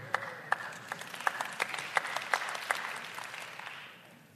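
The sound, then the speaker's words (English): An audience claps for a few seconds, scattered hands with a few sharper claps standing out in a loose rhythm, at moderate volume before tapering off. No one speaks. “No, you don't have to clap there.”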